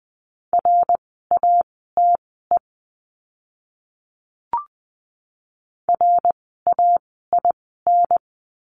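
Morse code tones at 20 words per minute: a steady mid-pitched beep keyed into quick dots and dashes, two bursts of characters separated by a pause broken only by a single soft click.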